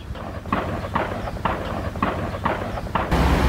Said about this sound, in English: We don't know whether what we're hearing is from the Israeli side or pointed over the border by Israelis. Amit says those are M16s being fired.